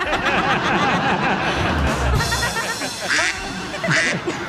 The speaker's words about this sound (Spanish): Dice, pato, tráeme las pantuflas. Y el pato dice, cuá, cuá.